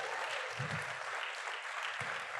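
A crowd claps steadily, a dense, even patter of many hands spread across the whole clip with no voices standing out.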